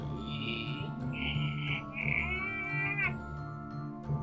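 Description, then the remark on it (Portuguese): After its handle is moved, a door slowly slides open, creaking in three drawn-out, high-pitched squeaky groans, one after another over a low background rumble, fairly loud, with no one talking. “Você encosta na porta, mexe na maçaneta, a porta desliza devagar, fazendo aquele som do.”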